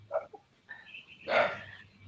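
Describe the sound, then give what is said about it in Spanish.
Dogs bark: a quick short yap, then a thin whining tone, then a louder, fuller bark, all fairly faint with no one talking. “Están ladrando los perros lindos allá.”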